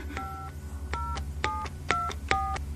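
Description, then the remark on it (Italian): Five electronic keypad tones beep out as a videophone is dialed, each a short two-note chirp with a faint click, spaced irregularly over a low steady hum, with no voices. “dammi quel videofono”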